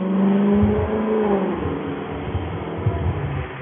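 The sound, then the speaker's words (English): A car engine revs loudly outside, its pitch rising then settling into a steady rumbling drone with a few sharp throttle bursts toward the end, no voices present. “I hear, I hate loud cars.”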